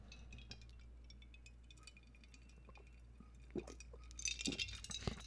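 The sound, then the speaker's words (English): Quiet sounds of someone sipping a drink: small glassy clinks and light taps, then a slurpy sip with soft wet swallowing noises near the end. No one speaks. “Let me take a sip of my drink.”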